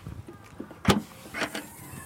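Two dogs, Mira and Maggie, are loaded into a car before setting off to a client: a sharp thump of a door or hatch, followed by brief mechanical shuffling and a whirring motor-like rise, with no one talking.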